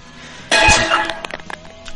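A cooking pot hits the floor with a loud metallic crash and ringing clang, followed by a few smaller rattling bounces as it settles.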